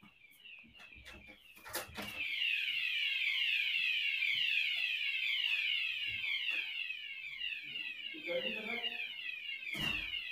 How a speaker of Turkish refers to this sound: Hocam bir saniye yangın alarmı çalıyor apartmandaki. Allah Allah.